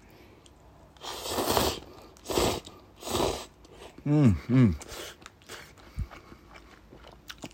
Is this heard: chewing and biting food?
yes